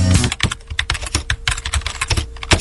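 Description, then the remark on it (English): Rapid, uneven clicking of keys on a computer keyboard, fairly loud, with bursts of taps and brief pauses, no voices present, as someone writes a home brewer review of White Labs WLP 400 yeast. “Hey, what are you doing, man? Writing a review of WLP 400.”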